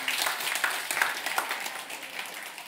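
An audience applauds the Lord together after a prayer, a dense, steady wash of many hands clapping with sharp individual claps poking through, holding even for a few seconds with no speech.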